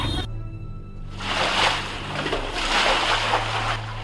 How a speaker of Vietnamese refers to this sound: lại phải ngồi hàng tiếng đồng hồ tát nước từ trong nhà ra ngoài đường.